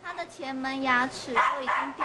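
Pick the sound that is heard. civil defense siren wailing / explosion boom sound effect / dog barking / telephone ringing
dog barking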